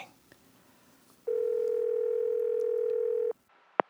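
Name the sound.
telephone ringback tone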